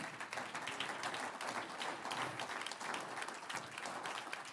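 An audience applauds the Lord steadily, a dense wash of many hands clapping at once, sustained and fairly loud from start to finish with no pause.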